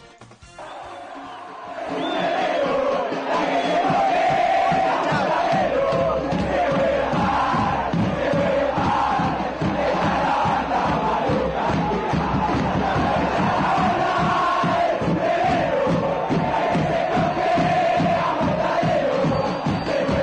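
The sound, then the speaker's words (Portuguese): A large crowd of football supporters chants a terrace song dedicated to Nueva Chicago in unison, loud and rhythmic with steady beats, starting after a brief quiet moment and continuing strongly throughout. “E aqui a gente tem duas músicas dedicadas a, ao Noiva Chicago na sequência.”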